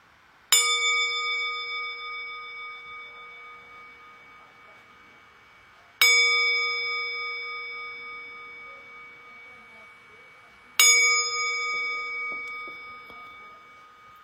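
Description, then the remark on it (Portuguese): A meditation bell is struck three times to begin a formal meditation practice period, each strike ringing out with a bright metallic attack and a long, shimmering sustain that slowly fades before the next. No one speaks. “Eu vou fazer convidar o sino a soar três vezes para a gente começar o nosso período formal de prática e depois uma vez para a gente terminar.”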